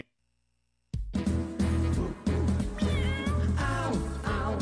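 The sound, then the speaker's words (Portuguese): After a second of silence, loud upbeat music begins, and two rising-and-falling cat meows ring out over it, the second following closely after the first. “Miau, miau, está no ar, pet papo animal”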